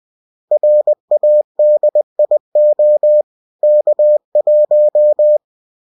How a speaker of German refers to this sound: Übersetzt lautet dieser Morsecode Radio K1.